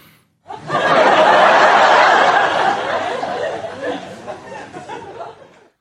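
A canned comedy laugh track erupts loudly, a dense crowd of laughter swelling at once, then gradually thinning and fading out over several seconds.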